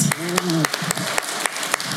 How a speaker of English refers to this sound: Come on, applaud a little bit, a little bit of energy, please.